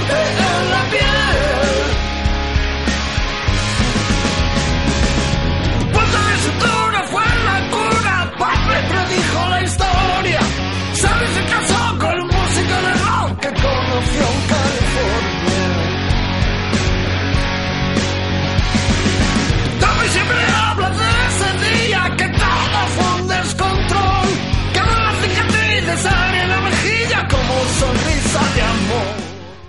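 A rock song plays loud and steady, with full-band instruments, a sustained bass line and a singing voice weaving through it for the whole stretch, with no talking over it.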